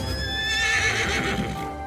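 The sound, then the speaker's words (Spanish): In a video game, a horse ridden by the player whinnies loudly, a high wavering neigh sliding downward, while hooves clip-clop steadily underneath for a couple of seconds. “Es brutalmente bello recorrer vastos escenarios con calidad fotorrealista montando nuestro caballo.”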